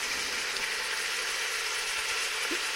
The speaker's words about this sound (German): Und ja, ne, ihr hört vielleicht jetzt schon, dass wieder ein bisschen Wasser zieht. Ne? Ist nicht mehr ganz so, ne? ist schon so ein bisschen am Köcheln. Ne? Aber es macht nichts.